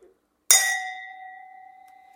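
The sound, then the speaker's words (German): A single bright clink of glasses of red wine touching in a toast, followed by a clear ringing tone that sustains and slowly fades over a couple of seconds, heard alone without any talking. “Prost, also.”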